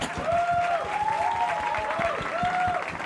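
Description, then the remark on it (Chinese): An audience claps steadily for a few seconds as warm encouragement for a young speaker, a dense patter of many hands, while a sustained tonal hum rises and falls over the applause in a repeating arc-like pattern. “我们给宝宝热烈的鼓励好不好？”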